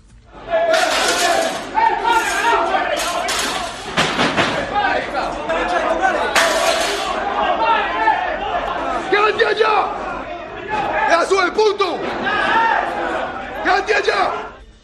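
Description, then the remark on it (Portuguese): A chaotic brawl in an internal area of a football stadium between Atlético Mineiro and Boca Juniors, recorded by the stadium's internal cameras, with many voices shouting and yelling over one another, loud and sustained throughout with brief surges of louder cries. “Vamos ouvir um trecho das gravações das câmeras internas ali do estádio no momento dessa briga.”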